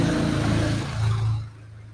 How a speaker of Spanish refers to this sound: Uy, va a pasar una moto, esperamos que pase